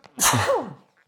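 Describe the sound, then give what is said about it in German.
A single sharp sneeze, fairly loud, with a bright explosive burst followed by a short trailing vocal tail, then quiet. “Gesundheit.”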